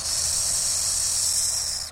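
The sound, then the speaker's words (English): A burrowing owl inside its burrow tunnel gives a steady, buzzy hiss that imitates a rattlesnake's rattle, a loud high-pitched rasp sustained for about two seconds before cutting off abruptly. “Certainly, I feel some trepidation when I'm reaching my arm down in there and I hear those rattles, and, and I'm hoping it's not a rattlesnake.”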